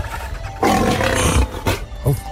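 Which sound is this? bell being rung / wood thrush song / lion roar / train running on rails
lion roar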